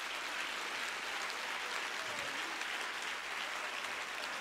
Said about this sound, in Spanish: tú tienes una parte de la responsabilidad y si usted quiere aplauda y si no, no.